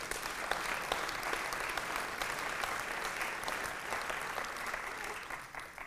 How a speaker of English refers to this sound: Can we just clap and give praise to God for that?